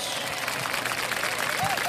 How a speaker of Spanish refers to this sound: Aplausos rapidísimos.